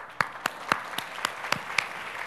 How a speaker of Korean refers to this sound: 우리 박수 한번 하시죠.